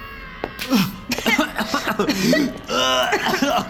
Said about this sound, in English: Dizzy, Bob stumbled into the hallway outside, coughing the last of the putrid burning odor out of his lungs.